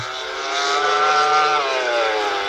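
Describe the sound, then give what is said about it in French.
A MotoGP racing motorcycle engine screams at high revs, its whining pitch climbing steadily before a brief dip as it shifts, loud throughout with no voices. “Aujourd'hui, on va parler moteur et plus particulièrement MotoGP, la catégorie reine des compétitions de moto”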